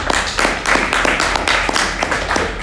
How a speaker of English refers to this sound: So that's why I clap. So thank you, much.